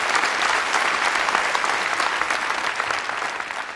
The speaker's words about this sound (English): As an academic scientist in the US, I'm not used to being interrupted by applause.